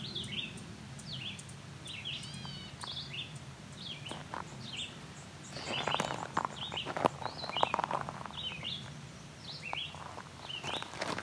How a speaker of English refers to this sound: And this, I'm not sure who's doing this tick call.